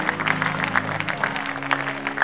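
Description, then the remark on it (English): An audience at a church service applauding with quick, steady clapping at moderate loudness, layered over sustained low musical tones; no one speaks. “Some of you are better than some people clapping for you.”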